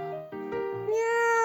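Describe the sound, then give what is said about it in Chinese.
A father, asked by his child, mimics a cat's meow: a few short, choppy mewing sounds lead into one long, sustained, slightly rising meow, moderately loud and heard alone with no other talk. “爸爸，你给我学个喵叫，”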